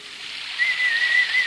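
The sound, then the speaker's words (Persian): A thin, faint whistle holding a steady high note in short broken stretches, partly masked by a constant breathy hiss: a stray cat named Thomas whistling as he passes by a bridge. There is no talking. “صبح روز بعد گربه ویلانی به نام توماس سوت زنان از کنار پل میگذشت که چشمش به سبد افتاد”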